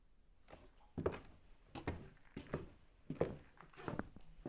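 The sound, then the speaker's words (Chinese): Footsteps of a husband coming back toward the bed at night after using the toilet: a steady run of about six soft, thudding steps at an even, unhurried walking pace, with no voices. “脚步声渐渐传来，但是妻子发现丈夫迟迟没有上床，于是疑惑地睁开眼睛。”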